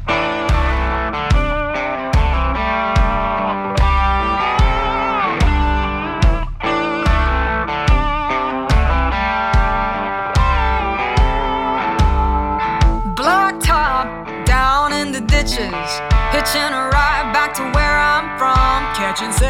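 A bluesy rock ballad plays with steady, thumping drums and overdriven electric guitar, then gliding, slide-like melodic lines rise in the second half over the full band.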